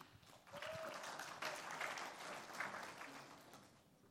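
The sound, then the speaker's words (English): An audience of people whose only debt is payments on their houses claps in a steady, dense wash of applause that swells quickly and holds for a few seconds, with a faint whistle or cheer near the start. “If you have no debts other than payments on your house, let's hear just a little applause right now.”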